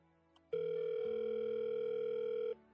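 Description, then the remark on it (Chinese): A telephone ringing tone from a phone call being placed: one steady, loud electronic tone holds for about two seconds, with a lower buzzing layer joining partway through, then it cuts off abruptly. No one speaks. “石龙给蓝雨打了电话，这一段时间以来，自己每次打电话回应自己的都是这个声音。”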